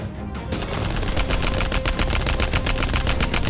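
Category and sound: sound effect, gunfire shots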